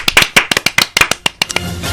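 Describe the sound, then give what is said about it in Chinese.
Sparse audience applause as a performer comes onto the stage: about a dozen sharp, loud claps in a loose, uneven rhythm, trailing off into a soft, hissy wash by the end. No talking. “海大夫上台，掌 掌声 自然来。”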